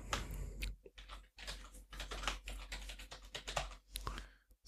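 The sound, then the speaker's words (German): Quick, irregular clatter of keys as an email address and password are typed on a computer keyboard, fairly quiet, with short pauses between bursts of typing and no voices. “ich gebe jetzt hier ein info at discoverypanel.de und das Passwort wiederum”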